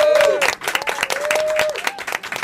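A live audience at the Bar Natán breaks into dense, sustained applause for a pianist, many hands clapping together, with a few voices and whistles rising above the clatter throughout.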